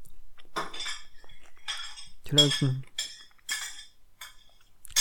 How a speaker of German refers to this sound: Gläser scheppern.